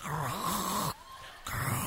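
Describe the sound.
A voice imitates the snoring of many people sleeping in an airport, a loud rasping snore with a wavering low rumble, then a short breathy pause before the snore starts again.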